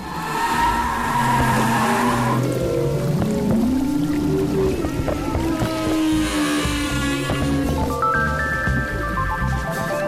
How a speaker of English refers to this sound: Jim Darling will spend the rest of the year analyzing his latest observations about humpback whale behavior and their haunting songs.